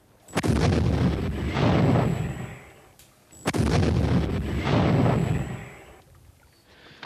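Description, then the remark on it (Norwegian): Two heavy coastal artillery cannon shots from the guns Moses and Aron, fired at the Blücher, a few seconds apart, each a sharp loud blast followed by a long rumbling boom that rolls and echoes before fading. No voices. “Under ledelse av batterisjef Magnus Sødem og oberst Eriksen selv satte kanonene Moses og Aron to skudd rett i kommandotårnet og i hangaren med flytende brennstoff.”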